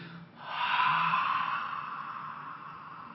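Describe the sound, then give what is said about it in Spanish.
A voice imitates a puma or panther with a single long, breathy hiss-like exhale that swells quickly and then slowly fades, heard alone. “Luego viene el puma o la pantera, que el sonido o la vibración es...”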